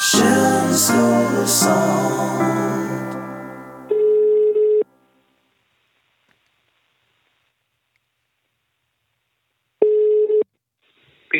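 An outgoing call rings on the line: after a brief burst of busy, layered tones, two steady ringback beeps sound several seconds apart, with silence between them and no one talking.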